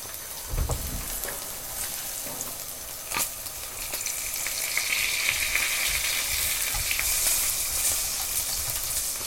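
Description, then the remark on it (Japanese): Pork belly sizzles steadily in a frying pan, a dense crackling hiss with scattered pops and a few sharp clatters near the start, growing slightly louder toward the end. “肉の音だよ。”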